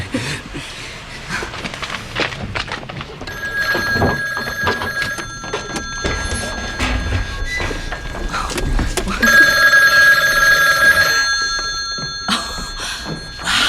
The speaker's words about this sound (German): Oh, ich, ich muss ans Telefon.